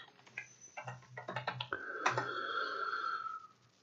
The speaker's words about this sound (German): Ähm, dann müsst ihr nach äh, Suchen klicken, Suche klicken und dann gibt einfach mal ein Nordsee.